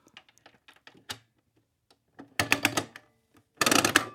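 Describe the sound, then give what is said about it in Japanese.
A few light mechanical clicks, then two loud bursts of rapid ratcheting clatter as a coin-operated capsule toy (gacha) machine's handle is cranked around twice, with 100 yen put in for each turn and capsules coming out, with no talking. “はい奥まで入れなくても回るんでさあそうそうそんぐらいですおお確かにこれ出てきてます出てきてるもう一回いきましょうか”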